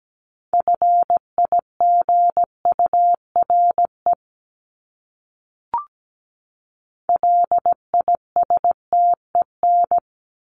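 Morse code sending common English words at 17 words per minute, in a steady mid-pitched tone, crisp dots and dashes keyed in two bursts separated by a pause with a single soft click, no voices.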